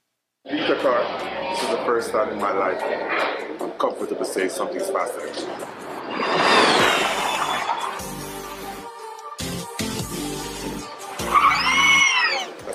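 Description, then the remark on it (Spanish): A sports car accelerates hard from 0 to 100 km/h in 2.89 seconds during a test, its engine note sweeping up loudly, followed by a sharp tire squeal near the end, with a voice talking over much of it. “Durante la prueba, aceleró de 0 a 100 km por hora en 2.89 segundos.”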